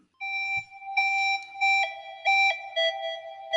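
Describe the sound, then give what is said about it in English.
Pure, whistly ocarina-like tones from a phone app, played by someone blowing into their phone on the United States West Coast, in a string of short and held notes, mostly near one pitch with small dips and wavers, fairly loud, with no voices. “Possibly some free jazz on the ocarina.”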